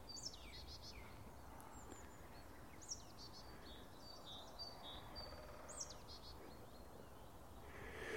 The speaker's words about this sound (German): Ja, ja, die Meise schimpft ein bisschen, weil ich hier rumstehe.